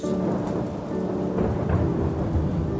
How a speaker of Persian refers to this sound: دم صبح بود تو محوت آسایشگاه بارون می اومد